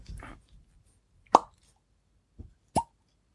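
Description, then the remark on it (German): A cork is drawn with a Screwpull corkscrew, giving sharp, hollow pops: two distinct loud plops with a softer tap between them, after some brief handling rustle and no talking. “Warte mal, ich versuche mal einen Plop hinzukriegen.”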